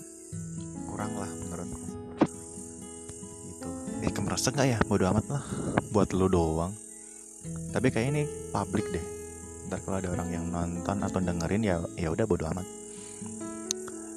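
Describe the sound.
Crickets chirp in a steady, high-pitched drone throughout, fairly loud and continuous, during a power outage, while people talk casually over them.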